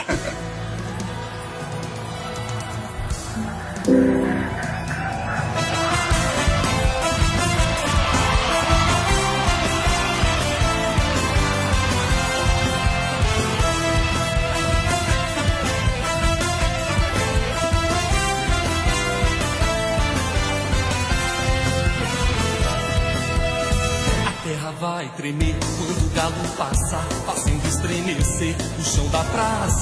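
A lively frevo carnival song plays loud and continuous, with dense brass and driving percussion building after a softer opening and briefly dropping out near the end.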